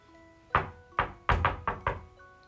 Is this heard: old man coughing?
no